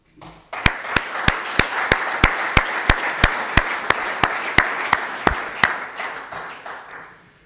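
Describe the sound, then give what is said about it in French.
An audience applauds an award laureate, a dense wash of clapping with a steady rhythm of sharp, loud individual claps cutting through, about three per second, before fading out after several seconds. “Nous pouvons l'applaudir, mais M.”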